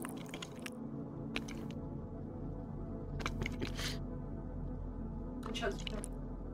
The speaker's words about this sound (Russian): Все, будем жевать. Слушай, конфеты это плохая была идея. На самом деле отличная идея. Да не, ужасная идея.